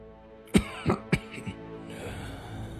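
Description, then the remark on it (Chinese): An old man's cough, heard from afar on a dark night: three harsh, raspy bursts in quick succession, followed by a softer fourth hack, then faint background hiss. No one speaks. “我还有些不信呢，但远远的，我便听见了一声苍老的咳嗽。”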